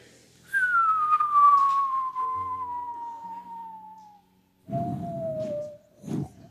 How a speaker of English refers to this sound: trying to keep whistling. I just ran out of lung space, even with these long lungs that I have.